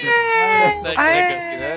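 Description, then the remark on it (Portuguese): A man wails loudly in an exaggerated, sobbing cry, two drawn-out pitched howls, sounding like someone theatrically imitating crying. “Ele tá duas horas chorando aqui no.”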